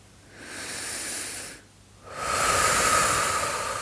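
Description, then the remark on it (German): Two deep, airy breaths taken consciously into the belly with eyes closed during a breathing exercise: a long inhale, a brief pause, then a longer, louder exhale with a breathy hiss. No one speaks. “Atme tief bis in den Bauch hinein und atme tief wieder aus.”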